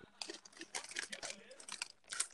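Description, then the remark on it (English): Crunchy chewing of Big Chewy Nerds candy, which has a chewy inside and a crunchy outer shell, with a steady run of moist, crackling bites and mouth noises over a couple of seconds. “do you want do you want me to mail you some of these big chew nerds?”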